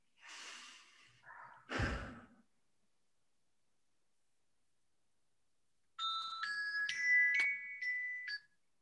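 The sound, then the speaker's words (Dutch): A person takes a few slow, calm breaths, a soft exhale followed by a deeper one, then a pause of silence before a short electronic chime melody plays. “Oké, en dan ga nu even heel rustig naar binnen toe. Even een paar keer ademen.”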